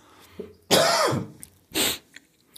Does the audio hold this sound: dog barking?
no